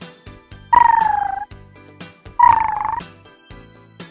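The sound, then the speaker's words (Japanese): A voice imitates a raccoon's call with two rapid, trilling chirrs, each under a second long and fluttering at a high, nasal pitch, separated by a short pause and softer breathy sounds. “ちなみに鳴き声は、今、いろいろ聞いて勉強してきたよ。アライグマくんは、”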